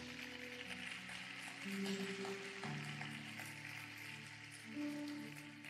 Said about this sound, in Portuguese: Nós, vamos lá, pode aplaudir o Jesus.